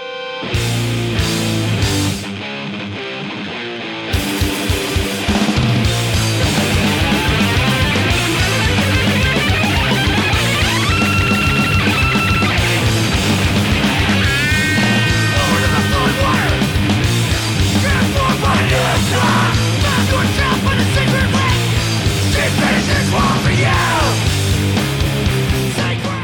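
A full-bodied song plays on its own, with dense sustained instrumentation and a steady rhythmic pulse. After a brief lull near the start, it stays loud and continuous throughout.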